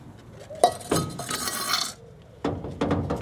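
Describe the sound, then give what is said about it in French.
A plate of food is set down in front of a door with a sharp crockery clink, followed by a brief scraping rustle and a few more light clinks of dishes. “On a qu'à le laisser devant sa porte, en espérant qu'il ne tarde pas trop.”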